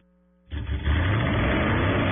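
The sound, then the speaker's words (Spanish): A car engine kicks in after a brief quiet moment and revs into a loud, sustained roar, powerful with a deep rumbling low end. “Voces y rugidos en autos y motos de Blue Radio.”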